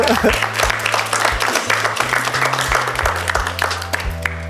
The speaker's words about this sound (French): Ok, c'est très bien, on va applaudir Alia.